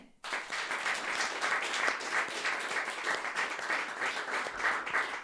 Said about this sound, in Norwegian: Så jeg vil at vi skal gi en stor applaus til første kvinne ut